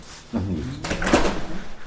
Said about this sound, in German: Wir halten vor einer grau-metallischen Gebäudefassade ohne Fenster. Durch eine schwere Tür geht es ins Untergeschoss.